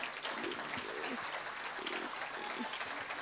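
A crowd claps steadily, dense overlapping applause filling the room at a moderate level, with faint murmuring voices underneath, welcoming a speaker who is about to share her testimony.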